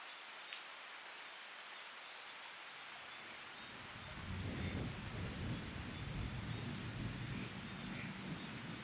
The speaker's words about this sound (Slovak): Preto som zvedavý, čo všetko sa naučíš, kým budeš počúvať tieto dažďové kvapky.